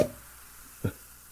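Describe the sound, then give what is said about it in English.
A single hollow pop made by smacking puffed cheeks with the mouth, short and fairly soft, rising out of near silence with no talking around it. “What popping your your cheeks?”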